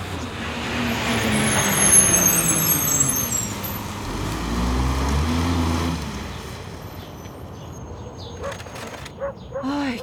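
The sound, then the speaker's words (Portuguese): A garbage truck rumbles, its heavy engine swelling as it pulls up at five in the morning to collect trash, with the sharp squeal and hiss of air brakes over steady road noise. “Ainda bem que eu coloquei o lixo para fora antes de vocês chegarem. Olha aí o caminhão.”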